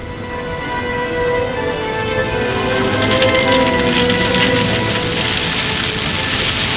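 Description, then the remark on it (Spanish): Heavy rain pours down in a steady, dense hiss that grows slightly louder partway through, with a soft underlying rumble suggesting a storm; no one speaks. “se suscitó una horrible tempestad.”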